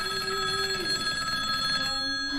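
A telephone bell rings steadily, a bright sustained metallic trill holding its tone throughout, fairly loud with a faint low hum beneath and no talking.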